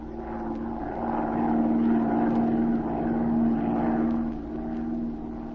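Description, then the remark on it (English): A steady propeller plane engine drones continuously as Z's plane circles lazily over the city, with a sustained low hum and a gentle swell in loudness midway, as if the aircraft is banking overhead. No voices. “short time later, Z and Patricia Norwood took off in Z's plane and began to circle lazily over the city.”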